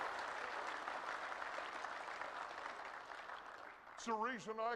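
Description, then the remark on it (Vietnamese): A crowd claps steadily for God for about four seconds, a dense, even wash of applause, before a voice begins speaking over the tail end. “Hãy vỗ tay lên nào. Hãy vỗ tay cho Đức Chúa Trời.”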